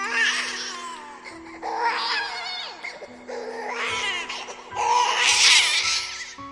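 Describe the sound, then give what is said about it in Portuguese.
A baby cries desperately inside a house in four loud, drawn-out wailing bursts with brief gasping pauses between them. The cries are strained, growing most intense at the end. “Você continua caminhando e, quando chega na porta, você tira os sapatos, abre a porta, entra e escuta o seu bebê chorar em desespero.”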